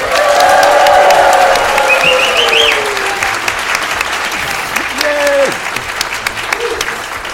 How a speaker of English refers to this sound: Let's hear all you women and a handful of gentlemen make a lot of noise.